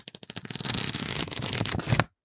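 Pages of a book riffled quickly from start to finish, a soft flapping that begins as separate ticks and blurs into a dense, papery flutter for about two seconds, fairly loud.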